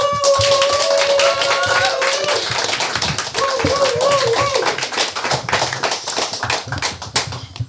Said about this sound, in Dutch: Ja. wij gaan aan tafel uitnodigen Thomas Heerma van Vos. Applaus.